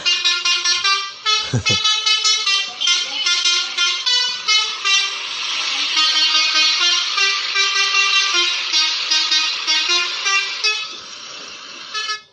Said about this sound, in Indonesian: bisa bisa begitu kan klakson klakson bis nah, itu sempat viral sempat viral waktu itu